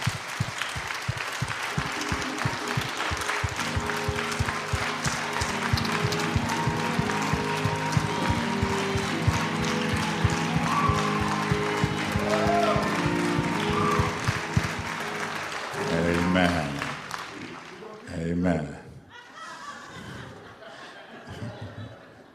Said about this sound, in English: And so I just want to lead the congregation and just giving your pastor a hand clap here.